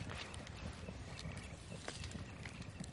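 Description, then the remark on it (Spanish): A branch pokes and scrapes through campfire embers, a steady gritty rustle broken by small crackles and soft knocks, with no voices. “Mueve las ascuas de la hoguera con una rama.”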